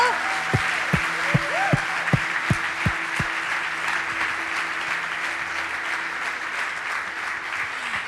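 A church audience at Vida Abundante claps steadily to welcome members and first-time visitors. It is a dense wash of applause lasting several seconds, with a few sharp thumps and a sustained tone underneath early on before the clapping continues alone.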